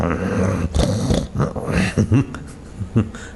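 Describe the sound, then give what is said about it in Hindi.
A person's voice mimics a frightened puppy barking back in defense, giving several short, gruff yaps spaced unevenly over a few seconds, fairly loud. “एक कुत्ते का पिल्लर भी भय होता है तो प्रतिकार करता है भों भों करता अंदर भी फिर आंखें दिखाता रहता है छोटा सा कुत्ते के बच्चे को भी डराओ ना”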